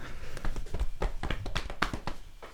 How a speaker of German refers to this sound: Schulterklopf. Warte, ganz kurz, klopfen uns alle auf die Schultern.